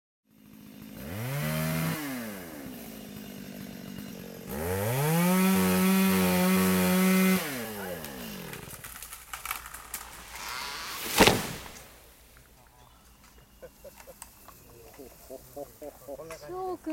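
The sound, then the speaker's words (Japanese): A chainsaw revs loudly in two long bursts as a planted tree, some 50 to 60 years old, is felled in a forest at Tokura, Japan. Then comes a stretch of rustling and creaking, a cracking and sudden heavy crash, and a fading rumble as the tree comes down. “すごいかっこよかったあんな音するんだねパキパキドーンっていうんだ”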